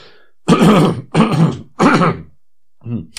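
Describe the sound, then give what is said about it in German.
Three loud, rough throat-clearing bursts in a steady rhythm, each about half a second long, followed by a softer, shorter fourth one after a brief pause. “Ich wurde darauf hingewiesen, dass wenn ich einen Frosch im Hals hab den sofort zu entfernen”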